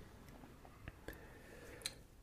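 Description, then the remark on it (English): Someone quietly sips beer, with a few soft, wet mouth clicks and a brief slurp against faint background hiss. “I'm I'm gonna take another sip here”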